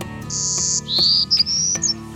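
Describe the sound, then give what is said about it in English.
A golden-cheeked warbler, a songbird that breeds only in Texas, sings a clear song of several high, buzzy notes strung together, a long wheezy buzz followed by rising and level phrases, with no talking over it. “That's the golden cheeked warbler.”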